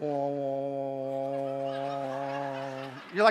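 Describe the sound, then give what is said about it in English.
A person makes a loud, steady, nasal buzzing hum for about three seconds, imitating the drone of a bright electric light, then breaks off into a brief spoken remark. “That's the sound of a real bright light, right?”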